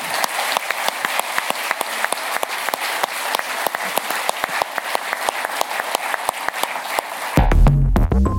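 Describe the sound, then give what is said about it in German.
Sustained audience applause for the discussion panelists on stage, a dense, steady patter of many hands clapping with a few sharper individual claps standing out, ending abruptly as a low, louder sound cuts in at the end. “Nochmals vielen, vielen Dank und vielleicht einen großen Applaus an die Diskutanten hier auf der Bühne.”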